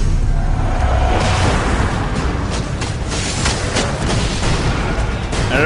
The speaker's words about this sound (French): Alors euh, cette euh, petite musique, son euh, bande-annonce, c'était celle d'Outland, jeu Ubisoft qui débarque sur les PSN quand ça sera ah, activé et XBLA, donc surtout en ce moment.